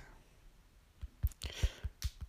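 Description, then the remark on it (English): A short burst of keyboard typing on Facebook: about seven crisp, irregular key clicks, starting after a quiet second and running to the end, with no talking. “just typing on Facebook.”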